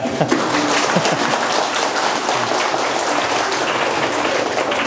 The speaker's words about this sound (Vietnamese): sáng vừa rồi là có vỗ tay mồi thôi đó, săn mồi bao giờ cũng cần mồi mà đó